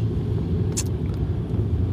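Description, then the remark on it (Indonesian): Steady low engine rumble of idling and creeping cars in heavy traffic, continuous and fairly loud, with a brief hiss near the middle and no voices. “dan of course ini macet”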